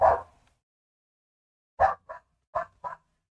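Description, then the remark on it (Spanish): A dog barks in short bursts: a single bark, a pause of over a second, then four quick barks in a row, slightly muffled, with no one talking. “¿Por qué justo ahora se pone a ladrar el perro, Después de, no sé, tres horas.”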